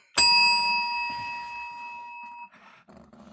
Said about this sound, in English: phone ringing. Sorry about that. Now he calls back all day long.